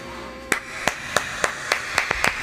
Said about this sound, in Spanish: ¿Se puede poner algo, un efecto para que parezca que tenga un montón de aplausos?